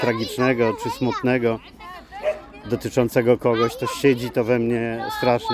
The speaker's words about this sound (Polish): A to, co słyszycie w tle, to właśnie całe rodziny e, wielonarodowości, które mijam na kocykach, które sobie piknikują. Czasem z muzą, tak jak to było słychać w tle, mieli głośniczek JBL-a i sobie tam e, słuchają muzy